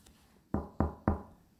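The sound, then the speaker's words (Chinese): Three firm knocks on a bedroom door at night in a steady, evenly spaced rhythm, each a sharp thud with a brief ring-out, heard alone against a quiet background. “当我偶偶然偶然哦，就是他突然之之间醒来的时候呢，就听到敲门声，”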